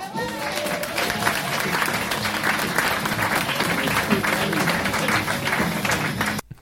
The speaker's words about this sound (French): J'aimerais qu'on donne une bonne main d'applaudissements